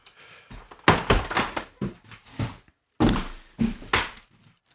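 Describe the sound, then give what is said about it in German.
A screw-cap bottle is opened and a glass filled with water, heard as a series of hollow knocks and clunks with a short pause midway. No voices. “Ähm, ist das eine Flasche mit einem Korken? Nein, es ist ein, Schraubver Es ist ein Schraubverschluss.”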